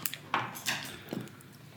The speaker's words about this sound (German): Ja, da wird, da wird getippt ja. und gemacht. Ich höre das schon.